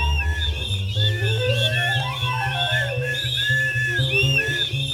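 Dozens of shrill whistles chirp and trill all at once, pitches bending up and down, layered over a steady, pulsing low rumble that runs the whole time.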